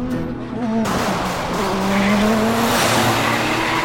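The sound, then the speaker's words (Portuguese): A car engine roars as it is driven at over 140 km/h past a police roadblock on a downhill road, while tires screech in a sustained, wavering squeal, loud, filling the whole stretch with dense road noise. “Decidi ultrapassar o bloqueio dirigindo a mais de 140 km por hora, a fim de tirar um fino entre eles e o acostamento colina abaixo.”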